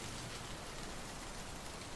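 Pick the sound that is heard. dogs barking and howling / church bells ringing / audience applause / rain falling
rain falling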